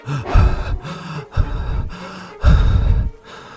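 A person breathes rapidly and shallowly, about six quick, audible, partly voiced gasping breaths in close succession with short pauses between them and no talking.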